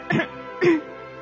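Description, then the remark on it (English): Two short, dry coughs about half a second apart, fairly loud, made by a narrator acting out a polite, deliberate cough over a quiet background. “The flower coughed, but it was not because she had a cold.”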